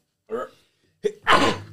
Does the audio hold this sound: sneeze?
yes